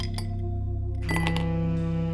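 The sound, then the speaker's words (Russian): A bright glass clink rings out about halfway through as whiskey is poured into a glass in an apartment, over a steady low tonal drone. No one speaks. “я наблюдал, как Сибил, босая, ходит по квартире и наливает виски”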